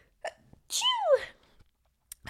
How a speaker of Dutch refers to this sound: Gezondheid.